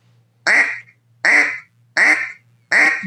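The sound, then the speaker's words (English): Four short, raspy quacks blown on a duck call, shortened quacks evenly spaced about three-quarters of a second apart, loud, with a faint low hum beneath and no talking. “and then you could shorten that quack up.”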